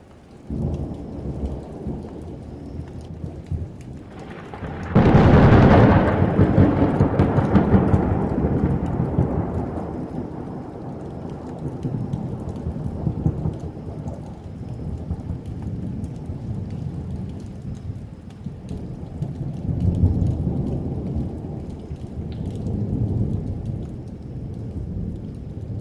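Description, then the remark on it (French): A thunderstorm: a sudden loud thunderclap around five seconds in, rumbling and echoing as it fades, over steady rain, with more low rolling thunder later on. “Quoi qu'il en soit, un orage est à chaque fois un événement.”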